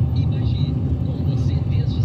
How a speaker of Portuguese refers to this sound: Mas é, é sábado. Por que tem tanto carro na rua?